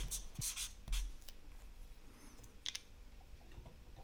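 Pens scratch across paper in a few quick strokes at first, then settle into quieter, intermittent scribbling against a faint background, with no one speaking, as quiz players write down their answers during a countdown.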